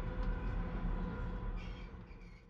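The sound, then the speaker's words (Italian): A subway train rumbles steadily at a station, a loud, continuous low roar with a faint metallic whine over it and a brief hiss of brakes or air near the end. “En la siguiente parada, me bajo del metro y busco el mapa.”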